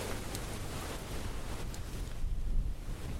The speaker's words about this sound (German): Nun ja, heute ist aber auch windiger.